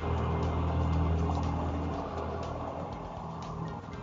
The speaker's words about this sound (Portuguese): Cara, tudo não, mas passou um caminhão aí do lado